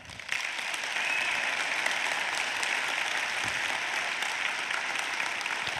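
Steady, sustained applause from a sizable crowd filling a large room, a dense wash of clapping that starts abruptly and holds at an even, fairly loud level throughout.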